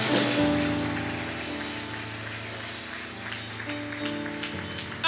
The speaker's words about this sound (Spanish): Alguien necesita aplaudir y decir amén, aleluya.